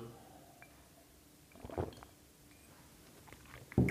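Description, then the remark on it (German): A single sip and swallow of water from a glass, a brief wet gulping sound in the middle of an otherwise quiet stretch, followed by a small soft mouth noise at the end. “hier das Glas Wasser. Da nehme ich jetzt gerade nochmal einen Schluck.”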